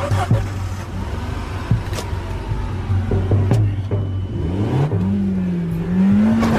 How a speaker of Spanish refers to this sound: Enciende el auto.